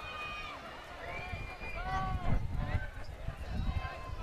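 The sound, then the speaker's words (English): A baseball stadium crowd cheers and shouts loudly, with overlapping voices and whoops rising and falling across a dense wash of background noise, as a section of the crowd gets a shirt after pitcher Moats records a strikeout. “So if Moats retires a strikeout, a section of the crowd gets a. Uh, a shirt That's why you're hearing all that noise in the background.”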